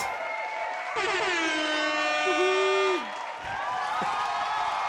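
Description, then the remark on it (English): A recorded crowd roars and cheers steadily for about five seconds, with a loud, sustained air-horn blast cutting through the middle for roughly two seconds. “Oh, yeah, they're going wild for you.”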